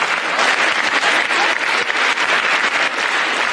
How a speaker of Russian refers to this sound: Овации длились 18 минут.